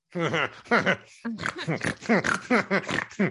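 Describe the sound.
A person laughs in a snorting, grunting way that imitates a pig's oink, several loud bursts in an uneven rhythm with a brief pause near the middle.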